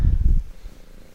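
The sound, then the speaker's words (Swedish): A cat, being petted and fiddling with the microphone, purrs right up against it: a deep rumbling burst that is loud for the first half second, then fades into softer, fluttering purrs with no one talking. “Jag hör att det spinner”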